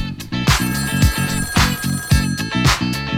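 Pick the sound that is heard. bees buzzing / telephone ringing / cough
telephone ringing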